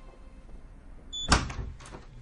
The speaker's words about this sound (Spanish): Luego, Manu abre la puerta de una habitación.